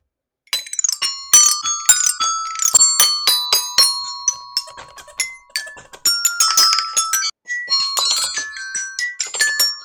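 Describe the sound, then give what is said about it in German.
A xylophone plays a quick, bright melody of struck notes in clustered runs as an outro, with a few notes left ringing. It is fairly loud, with no talking over it. “Xylophon-Outro.”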